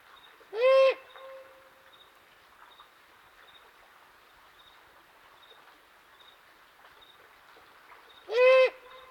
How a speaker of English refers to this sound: I set my soundscape mic under the owl's calling tree